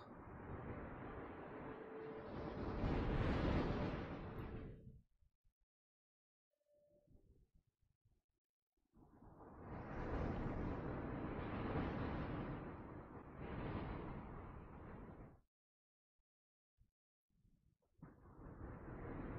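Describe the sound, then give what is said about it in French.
Sea waves rush in as loud, broad roaring surges, three swells rising and falling with near-silent pauses between them; no voices are heard. “Est-ce que tu entends toujours le son de la mer en même temps que je parle?”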